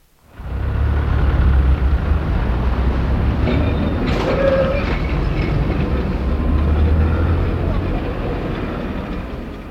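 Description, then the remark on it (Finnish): An old electric tram rattles steadily along its tracks on the streets of Helsinki, Finland, a loud continuous clatter and rumble with a brief metallic squeal partway through, heard from on board. “Lyhytkäyttöisten raitiotievaunujen kolina on siis kuulunut katueenimme 75 vuoden ajan.”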